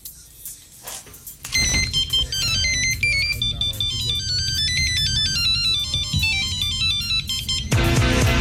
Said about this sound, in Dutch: We gaan even naar onze jingles.